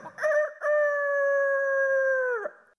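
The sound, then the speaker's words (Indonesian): A rooster crows once, loud: a short opening note, then a long, steady drawn-out call that drops off sharply at the end. No one speaks. “Lalu terdengarlah ayam jantan berkokok bersahut-sahutan.”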